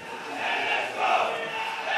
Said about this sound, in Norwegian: For første gang siden 29.4 kunne laget i bortegarderoben juble for tre poeng etter en seriekamp på stadion.